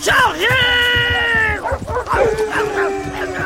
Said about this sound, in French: Les chiens les entourent. Ils grognent et aboient sur les cochons sauvages.